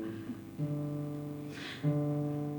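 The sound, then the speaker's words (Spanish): An acoustic guitar being tuned before a live performance on a hot day: a string is plucked twice and left to ring out at a steady pitch, with a brief scraping rustle between the two notes. No one speaks. “Vai soar a afinación primeiro, porque claro.”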